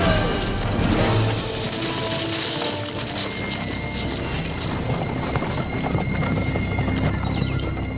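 Many warriors' horses, with cactus branches tied to them, gallop together in a dense, continuous clatter of clip-clop hooves that stays loud throughout, with an occasional whinny mixed into the rumble.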